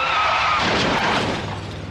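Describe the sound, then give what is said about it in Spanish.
A car skids with a brief high squeal, then crashes in a loud, dense burst of shattering glass and crunching metal that fills the short scene, harsh with no voices. “Los domis de choque revelan el daño que puedes sufrir al chocar en un auto.”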